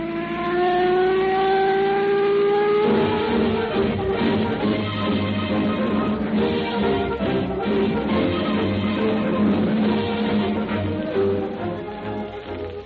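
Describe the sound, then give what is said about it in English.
A radio patrol car's engine rises in pitch as it revs up, then settles into a loud, steady rumble of driving as two police officers cruise their territory at night, continuing throughout with no voices. “Two police officers cruising about their territory tonight in a radio patrol car”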